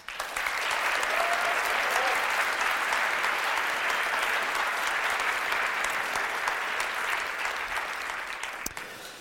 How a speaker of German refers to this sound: Einen großen Applaus für Florian Homm.